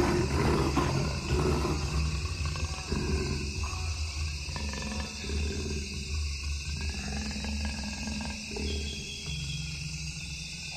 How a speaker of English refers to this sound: And the last word goes to a jaguar from the Amazon.